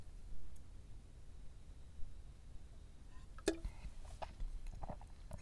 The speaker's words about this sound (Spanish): Pausa para trago de café.